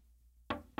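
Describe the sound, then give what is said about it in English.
Two soft, gentle knocks on a door, spaced a short moment apart after a brief quiet stretch, light with no voices. “But I knock.”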